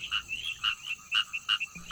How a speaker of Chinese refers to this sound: 那接着第二首呢，就是在描述青蛙的叫声了。那我们来赶紧欣赏一下林良是怎么描写青蛙的叫声呢？